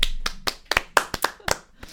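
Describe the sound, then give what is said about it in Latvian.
Hand clapping for someone who has become club house president, in a quick, slightly uneven rhythm, about nine or ten sharp claps in two seconds, moderately loud, with no talking over it. “Cilvēki ar ovācijām lauž krāsas.”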